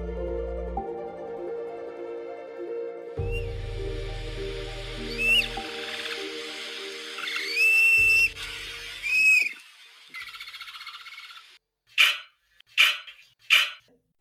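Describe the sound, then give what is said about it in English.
Dogs let out a series of high, squeaky chirps over a steady musical backdrop, then three sharp, loud barks come in quick succession near the end. “definitely a lot of chirping noises. Yeah. And then, of course, a, a bark there at the end”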